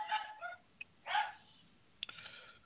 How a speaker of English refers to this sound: Well, I've got a, I've got barking dogs and this, that, and the other.